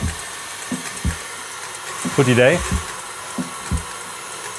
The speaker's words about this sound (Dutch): Ehm, ik ga even herrie maken. Ja. Ik heb hier dus 100 gram eiwit die ik luchtig ga kloppen.